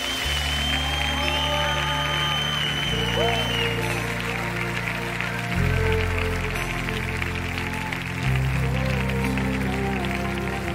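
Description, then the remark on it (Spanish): An audience claps steadily and continuously for the Lord during a Spanish-language church worship service, over loud, sustained worship music with deep bass notes, the applause forming a dense, even wash of noise throughout. “Dale un aplauso al Señor.”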